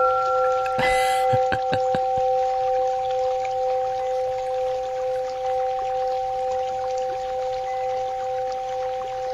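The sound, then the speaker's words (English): Wind chimes strike in a quick cluster near the start, their tones ringing on steadily over the continuous rushing babble of a brook, with no voices. “Wind chimes babbling brook.”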